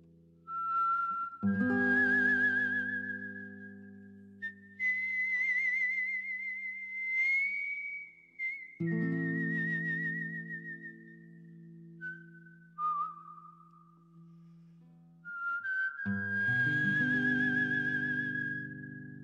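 A whistled melody of long, sustained notes with gentle pitch slides, carried over a steady, low instrumental accompaniment; no one speaks.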